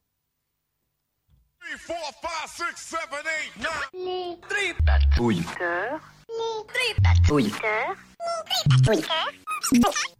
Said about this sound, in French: Les tripatouilleurs. Bon, voilà je suis moi, fan de mon jingle. Euh, bon, voilà, vous êtes bien sur Prune 92 FM.